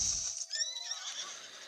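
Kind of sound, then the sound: animal, horse neighing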